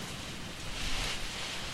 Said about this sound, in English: The good thing about that is whenever it rains this hard, it only rains this hard for like five minutes and yeah. then stops.